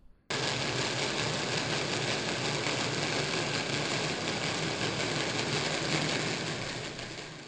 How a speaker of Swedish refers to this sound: Det här knastrande ljudet är så kallad kapitation som sker med, som bubblor som kollapsar efter propellen. Och det är ganska karaktäristiskt för, för fartygs, stora fartyg.